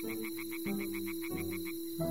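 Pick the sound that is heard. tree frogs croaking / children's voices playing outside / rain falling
tree frogs croaking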